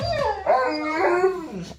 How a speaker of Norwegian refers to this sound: Vi har jo selvfølgelig, vi har jo selvfølgelig en eh, lyd av en hund som har blitt tråkka på poten nå, så vi kan høre hvordan det høres ut.